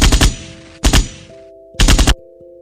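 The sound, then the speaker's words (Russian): Three loud bursts of rapid automatic gunfire from a machine gun and automatic rifle sound effect, each a quick rattle of several shots with a ringing tail, separated by short pauses. “Э, всевозможные, конечно же, пулеметные, автоматные выстрелы.”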